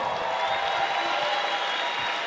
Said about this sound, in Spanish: Un aplauso fuerte.